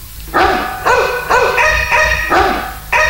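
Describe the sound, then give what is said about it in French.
Two dogs bark and howl together in a loud, tonal, overlapping chorus of about five drawn-out, wavering calls, with no talking. “Qu'est-ce que c'est que ça Des chiens qui chantent en duo des chiens qui chantent en duo C'est exceptionnel Oui, d'habitude, ils chantent plutôt en solo.”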